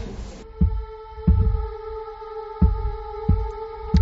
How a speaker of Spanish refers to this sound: pero es que a continuación como una especie de puñetazo en el techo. Es como la bombilla, no se ve nada, no se ve ninguna persona física, me refiero. se oye el porrazo y ya está.